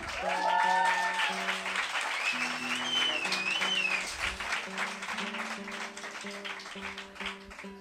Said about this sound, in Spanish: Juanma está imbuido en la prueba de sonido, ¿veis cómo un músico se aísla? Están probando. ¿Qué tal, Juanma? Un aplauso a Juanma Latorre, por favor.